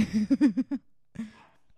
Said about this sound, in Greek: Oh well, θα έχουμε συντροφιά από τον Χέντριξ. Μισό λεπτάκι. Να τον βάλουμε μέσα για να μην γαυγίζει.